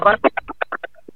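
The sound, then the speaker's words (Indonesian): A voice imitates a rubber chicken toy being squeezed repeatedly, making a quick run of about eight nasal, honking squeaks that shorten and fade toward the end, fairly loud. “Itu suara ayam-ayaman karet yang dipencet-pencet.”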